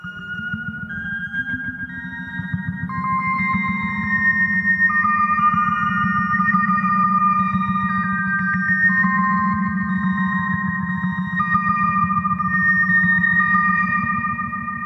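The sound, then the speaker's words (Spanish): A short melody from a UFO recording from the city of Vitoria: long, held electronic tones stepping between pitches, played over a constant loud buzzing drone with a fast pulsing texture. There is no talking. “es una melodía muy cortita, no sé a vosotros a qué os recuerda.”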